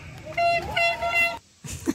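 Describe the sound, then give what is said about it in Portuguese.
A car horn blares in one sustained, slightly wavering honk lasting about a second, fairly loud, followed by a short burst of rougher noise after a brief pause. “é, lá está, eram do carrinho, se calhar era um Ferrari de um, de um governante.”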